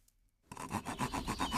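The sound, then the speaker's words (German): A hand saw rasps back and forth through a wooden board in quick, steady strokes, fairly loud, starting after a brief silence, as a board is sawn off while building a treehouse in a forest. “Ich möchte hier ein Brett absägen.”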